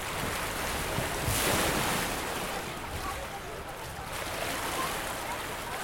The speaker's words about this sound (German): Die blaue Röhre spült den nächsten ins Nichtschwimmerbecken oder auch zwei oder drei. Kettenrutschen. Wasser schäumt, klatscht über dem nächsten Kopf zusammen. Untertauchen.